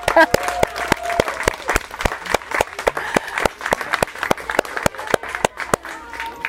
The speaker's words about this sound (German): So, und weil ihr das wisst, machen wir den Teil mit dem Klatschen nochmal. Da klatscht ihr einfach mit, wenn ich euch das Zeichen gebe.